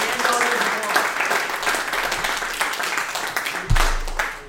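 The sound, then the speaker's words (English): Audience applause: a dense, steady wash of many hands clapping at once, fairly loud and continuous, with some voices mixed in and a brief low thump near the end. “We made audience applause. Audience applause.”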